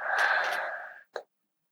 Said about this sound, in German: Wir atmen erstmal gemeinsam ein